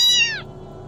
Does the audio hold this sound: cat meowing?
yes